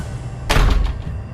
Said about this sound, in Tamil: அவங்களோட வீட்டு கதவை யாரோ உடைக்கிற சத்தம் கேட்குது